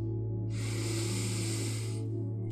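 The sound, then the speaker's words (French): A single long, deep breath drawn in through the nose or mouth, an airy hiss lasting about a second and a half, steady over a low background hum, with no talking. “Fermez tranquillement vos yeux et avant que nous commencions, je vous invite tranquillement à prendre une grande respiration. Inspirez.”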